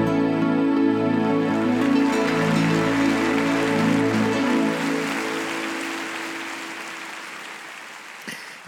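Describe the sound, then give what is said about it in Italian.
Steady audience applause, a dense crackling wash, rises under the closing sustained chords of a song, then carries on alone as the music fades out, ending abruptly. “applausi sempre meritatissimi”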